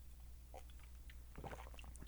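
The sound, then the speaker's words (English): A quiet sip of blueberry beer from a glass: a faint wet slurp followed by a brief cluster of soft swallowing and mouth sounds, with no talking. “So, without further ado, let's get on to the first sip.”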